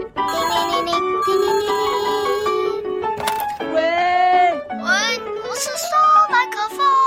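A bright, melodic telephone ringtone plays for about seven seconds, with sustained tones and sliding pitches that sound partly sung in a childlike voice, fairly loud throughout.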